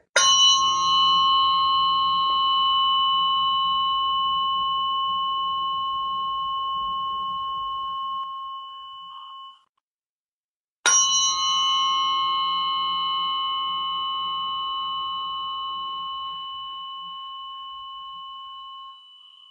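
Two long ringing metallic tones from struck tuning forks, each starting with a sharp strike and slowly fading over about nine seconds, separated by a brief silence. Steady bright pitch with shimmering overtones, no talking.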